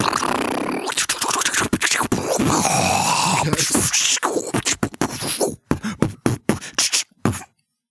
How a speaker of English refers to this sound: Dude, that is the sound of everybody in a fast food restaurant dying.